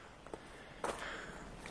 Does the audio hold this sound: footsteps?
yes